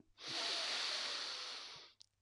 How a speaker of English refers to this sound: And you want to be breathing in through your nose and out through your mouth. So breathe in and out.